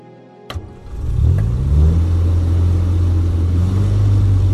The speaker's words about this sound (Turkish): Bu korkunç gürültü de ne böyle? Motoru deniyorum. Birileri huzuru bozduğun için seni şikayet etmeden şunu kessen iyi edersin. Nasıl çalıştığına bakıyorum baba. Kes şunu hemen.